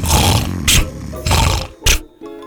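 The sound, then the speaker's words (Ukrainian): Loud, rumbling snoring of a wolf asleep under an apple tree at night: two cycles of a long rasping growl followed by a short sharp snort, with no one talking. “Поросята дочекалися ночі, коли вовк заснув під яблуню і захропів.”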